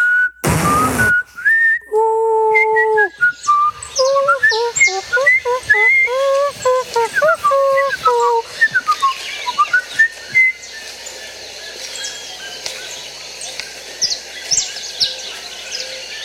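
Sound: person whistling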